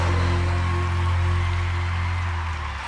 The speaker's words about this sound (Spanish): Fuerte los aplausos.